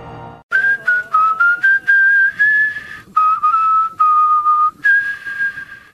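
A person whistles a melodic tune alone, clear and close, with short phrases separated by brief pauses and gently sliding pitches.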